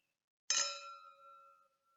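A single bright clink of glasses touching in a toast, followed by a high, ringing tone that hums on for about a second before fading out. No one speaks.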